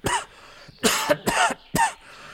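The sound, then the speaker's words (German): A harsh coughing fit caused by a bread crumb slipping into the windpipe while biting into a loaf of bread: four forceful, raspy coughs in quick, uneven succession, loud, with a strained, choking quality and no speech. “Der Hustenanfall ist so erschütternd, dass das linke Auge des Herrn Meiner aus der Augenhöhle springt.”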